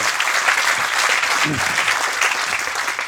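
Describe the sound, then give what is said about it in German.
Sustained applause from a sizable audience, many hands clapping steadily, with a brief murmur of voices partway through. “Muss alle mal klatschen.”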